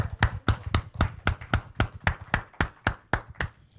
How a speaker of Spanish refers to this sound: Le damos el aplauso al Señor, creo que se lo merece.